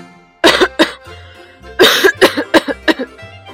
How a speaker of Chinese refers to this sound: 客人们刚把食物放进嘴里，就放下了勺子，咳嗽地站起来。